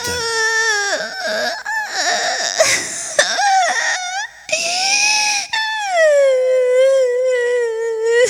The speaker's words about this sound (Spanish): El único ulular era el llanto aún contenido de Susanita